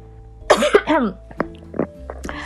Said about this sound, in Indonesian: aduh mau batuk